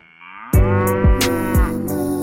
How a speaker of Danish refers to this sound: Det var virkelig, den startede. Den startede med en kolyd.